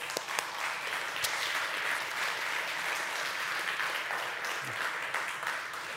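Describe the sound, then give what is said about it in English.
A crowd applauds God steadily during a morning sermon, dense overlapping claps forming a continuous wash of sound that holds at an even level throughout, with a few sharper individual claps standing out near the start. “And give him a big clap this morning.”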